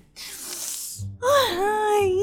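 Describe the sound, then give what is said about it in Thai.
A student takes a long, breathy inhale followed by a loud voiced sigh as the breath is let out, a single deep breath in and out with no talking. “เชื่อครูนะ หายใจลึกๆไหนลองหายใจลึกๆสิ”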